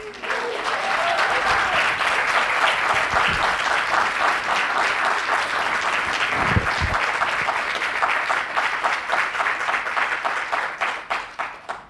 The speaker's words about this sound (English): That applause wasn't for me, by the way. That was for you, okay?